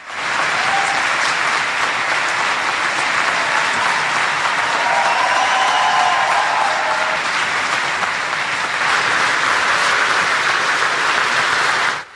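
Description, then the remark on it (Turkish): Sustained, dense applause from a large audience in a conference hall at the climate change conference in Warsaw, on its first day, after a speech by Yepsano; many hands clapping at once fill the whole stretch at a steady, loud level with no voices standing out. “Yepsano'nun konuşması salonda uzun süre alkışlandı.”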